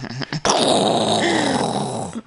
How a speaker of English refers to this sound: Outer space explosion.